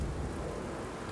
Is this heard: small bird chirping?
no